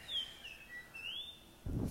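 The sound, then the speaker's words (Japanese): Japanese grosbeak song: a short run of clear, sliding whistled notes, rising and falling, heard alone, ending with a brief low rumble. “で、このキーキーキョコキーが、なんかイーカールっていう風に聞こえると。”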